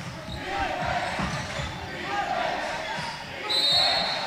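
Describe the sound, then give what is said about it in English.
A basketball bounces amid murmuring crowd noise and indistinct voices during a second-quarter women's college game between Middle Tennessee's Lady Raiders and Southern Miss. At the end, a sharp, steady, high-pitched referee whistle blast sounds for almost a second, calling a foul. “And we've got a whistle and a foul, and I think they're going to get.”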